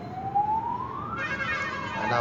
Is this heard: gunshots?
no